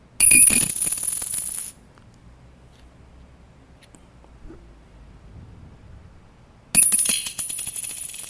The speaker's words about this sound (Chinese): 这个是铜板。我要问你说，你能不能猜得出这是几块钱？我把它丢在桌上，然后看你能不能猜得出它是几块钱。试试看哦，有五十块、十块、五块、一块，看你能不能分得出来。